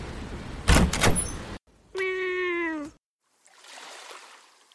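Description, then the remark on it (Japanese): A door opens with a rattling, scraping slide followed by a long, loud, drawn-out creak like a squeaky hinge, then fading into a faint soft hiss. “さあ着きました私が扉をお開けしましょう”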